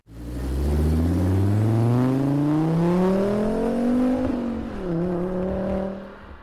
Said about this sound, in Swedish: Behövdes det göras en omkörning så petade jag gärna ner till fyran för att få ordentligt med turbotryck. En kortare fördröjning kunde märkas, men sen när fläkten började på att ladda, Då gick det undan. Femman ylade gott under huven.